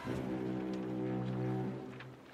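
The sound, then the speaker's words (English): A sludge tanker's horn sounds one long, low, steady blast that lasts a couple of seconds, droning, with no voices present. “Well, that was the sludge tanker over there, but there you go.”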